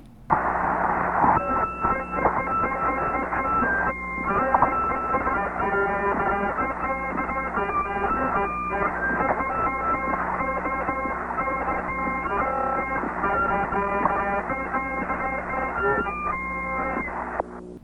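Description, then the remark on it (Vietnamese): Astronauts play Jingle Bells from space, Chira on harmonica and Stafford ringing bells, heard through a crackly, hissing radio transmission that stays steady and fairly loud throughout, with no talking. “Sau đó các phi hành gia đã thổi bài Jingle Bells, trong đó Chira thổi kèn harmonica và Stafford rung những chiếc chuông.”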